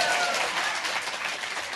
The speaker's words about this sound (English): Yes, applause. Yes.